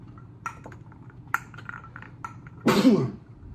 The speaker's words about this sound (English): I gotta sneeze.